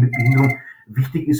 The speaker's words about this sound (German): Wenn man ein Telefon im Hintergrund hört, dann merkt man, da, sie sind im Büro, sie sind aktiv.